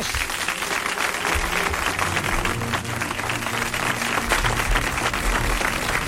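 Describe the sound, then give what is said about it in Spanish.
Sustained audience applause fills the whole stretch, a dense, steady wash of many hands clapping at a constant loud level, with faint crowd murmur underneath. An audience of parents and relatives applauds the presenters of Canal Sur's 2022 New Year's chimes broadcast. “Oye, ahora quiero pediros a todos los que estáis aquí fundamentalmente padres y familiares de los críos que nos acompañan, un fuerte aplauso a los presentadores de las campanadas de Canal Sur 2022.”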